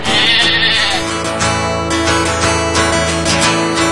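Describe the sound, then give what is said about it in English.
Sheep bleat loudly, a sustained, wavering call that continues almost without pause for about four seconds, with no voices talking. “Sheep, sheep, we love sheep.”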